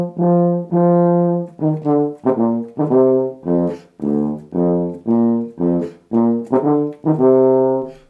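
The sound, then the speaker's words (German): A so-called Berlin tuba from 1850, part of a collector's instrument collection, plays a loud melodic phrase of about a dozen rich, brassy notes, some held and some short and detached, rising and falling in a steady rhythm with no voices. “Daniel Ridder spielt auf der sogenannten Berliner Tuba.”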